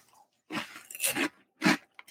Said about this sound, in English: Great crunch factor. Definitely satisfying if you're looking for that real snacky snack crunch.